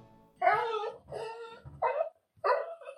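A dog barks four times in a steady, evenly spaced series, each bark short and loud, with brief silences in between and no other sounds.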